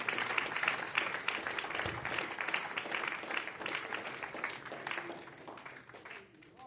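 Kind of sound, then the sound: crowd, audience applauding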